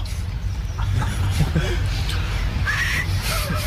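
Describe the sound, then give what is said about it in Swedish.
A muffled, breathy attempt at whistling during a whistling challenge with a whole chewed cookie in the mouth, mostly airy sputtering noise with one brief, wavering whistled tone breaking through near the end. “Äh, det är väl en godkänd vissling då.”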